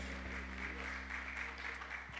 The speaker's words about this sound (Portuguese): Vamos aplaudir o Senhor, porque Ele é digno, irmão. Glória a Deus, glória a Deus, glória a Deus.